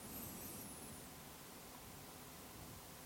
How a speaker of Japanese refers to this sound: 今日は空調もつけて、パソコンもつけて、IC レコードは、IC レコーダーは、あの普通の会議録音用、それに BM700 をつけて録音しました。